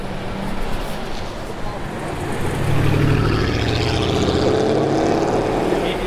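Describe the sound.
A heavy engine of a number 55 bus rumbles past on a street with a 20 mph speed limit, its low drone swelling and holding steady over continuous traffic noise, with a voice talking faintly in the background.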